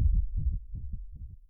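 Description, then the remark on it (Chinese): A pounding heartbeat sound effect for Da Xiong's heart after he shoots down zombies, with deep, muffled low thumps repeating in a steady, quick rhythm at moderate loudness. No voices are heard. “丧尸倒了下去，大熊的心砰砰的跳着。”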